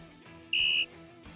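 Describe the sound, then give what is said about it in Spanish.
A single loud, high-pitched electronic beep from a timer being started after a 3, 2, 1 countdown, lasting about a third of a second, sounding clear over a quiet background hum. “voy a empezar a poner el temporizador en 3, 2, 1, ya.”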